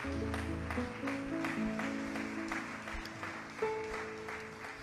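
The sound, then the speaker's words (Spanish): A church audience at a morning service claps steadily and densely for several seconds in applause to the Lord, a thick wash of applause with sustained keyboard chords playing underneath. “Vamos a dar un aplauso al Señor por todo lo que ha hecho en nuestras vidas.”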